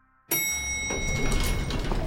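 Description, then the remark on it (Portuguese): A bright elevator chime rings out, then the elevator doors slide open onto the fifth floor of Microsoft Building 34 in Redmond, Washington, in March 2014, with a steady rumbling whoosh that carries on to the end. No voices. “a porta do elevador abre e o diretor dos estúdios de jogos do Xbox, Phil Spencer, sai para o quinto andar do Microsoft Building 34.”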